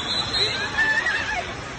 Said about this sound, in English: Yeah, people screaming, running for their lives. You hear the whistles of lifeguards getting people out of the pool.